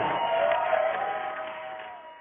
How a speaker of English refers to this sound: I, I, can kind of hear the crowd reaction, but but what did they look like? What did they sound like?